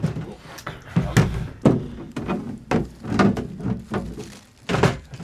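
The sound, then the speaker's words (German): A box containing a rain poncho is opened and unpacked: a busy series of dull thuds, knocks and scraping rustles as the lid and contents are handled, with faint murmuring voices in the background. “was haben Sie in der Box gefunden”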